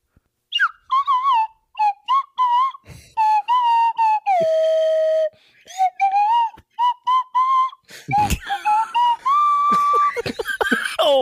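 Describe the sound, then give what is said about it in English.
A slide whistle plays a melody, with short gliding notes, pitch slides up and down, and a couple of longer sustained tones. It plays loud, with no talking. “slide whistle slide whistle rendition mm-hmm. of …”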